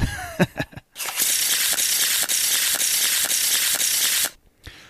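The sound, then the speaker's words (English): A deck of cards being shuffled: a few sharp taps, then a loud, steady riffling flutter of rapid crisp ticks lasting about three seconds, ending with a brief soft tap. No one speaks. “So I'll go ahead and shuffle it for you anyway.”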